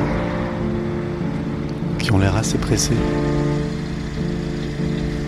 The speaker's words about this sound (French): J'attends devant. Je regarde les voitures passer, tous les gens qui vont au travail